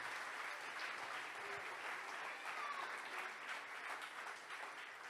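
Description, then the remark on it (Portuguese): An audience at a pastors' congress breaks into steady, sustained applause for the Lord Jesus, a dense wash of many hands clapping at an even loudness throughout, with no clear talking over it. “Aplaude o Senhor Jesus, porque deu certo.”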